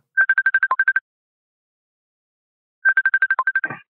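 Phone dialing tones: two quick bursts of short electronic beeps, about nine each, separated by a pause, the second ending in a brief crackle. Clear, with no voices.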